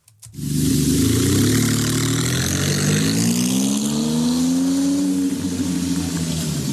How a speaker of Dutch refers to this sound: we weten zeker dat deze auto gewoon het kenmerkende Maserati geluid gaat krijgen